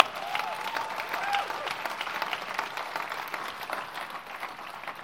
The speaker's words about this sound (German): Komm, lass uns nochmal einen Applaus geben.